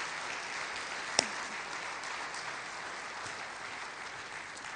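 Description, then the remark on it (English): Steady audience applause for a couple being introduced fills the whole stretch, a dense, even patter of many hands clapping, with one sharp louder clap standing out early on and no voices over it. “Would you give those guys a nice round of applause?”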